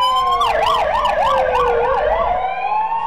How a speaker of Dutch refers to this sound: Maar ja, op een gegeven moment komen er ambulances. En ook alweer, niet één ambulance, maar die blijven gewoon komen.